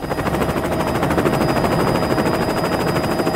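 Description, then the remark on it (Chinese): A helicopter flying while busy rescuing people, its rotor making a loud, steady, rapid chopping thud over a dense roar of engine noise that holds constant for the whole stretch, with no voices. “那是我好久不见的朋友，直升机小米，他正忙着救人呢。”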